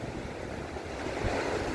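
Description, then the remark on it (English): Ocean waves wash continuously onto a beach flooded by a lot of water on April 12, 2023, in a steady roar of surf that swells slightly louder toward the end, with no voices present. “This is a lot of water.”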